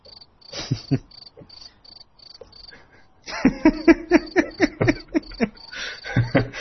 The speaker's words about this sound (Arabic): غالبا في في في ضفدع عايز يعمل مداخله